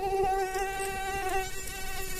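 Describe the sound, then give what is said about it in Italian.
A fly buzzes steadily, its droning whine holding a constant pitch with slight wavering throughout, with no voices present. “Le forme di vita più incredibili, dal plankton ai gorilla, fino ad arrivare alle mosche di merda.”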